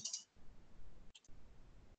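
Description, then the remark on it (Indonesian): A couple of short, crisp computer mouse clicks, one at the start and another about a second later, made while clicking to register an account on a website, over a low, steady background rumble with no talking. “Dengan cara klik ini ya, nanti diminta untuk mengisi biodata dan seterusnya.”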